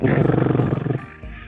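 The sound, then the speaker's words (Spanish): A voice imitates the buzz of a watch's cricket alarm: a low, rough, rapidly pulsing drone held for about a second, loud and steady before it trails off. “Se llama cricket porque el sonido que hace es como un zumbido, hace”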